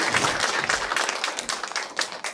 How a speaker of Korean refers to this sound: 네, 수고하셨습니다. 박수 한번 주세요.